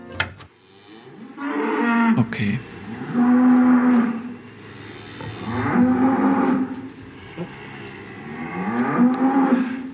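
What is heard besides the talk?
cow mooing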